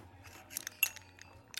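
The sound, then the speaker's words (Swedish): Drinking glasses clink together once in a Swedish 'skål' toast, a bright chime with a short ring, surrounded by a few soft taps and clatters. Quiet, with no talking. “Du, eh, skål då. Ja, skål.”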